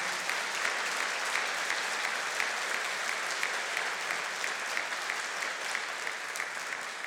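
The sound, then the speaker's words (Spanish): A church audience applauds for the Lord steadily for about seven seconds, a dense, even wash of many hands clapping at constant loudness with no voices standing out. “Démosle un aplauso al Señor, por favor, para Él.”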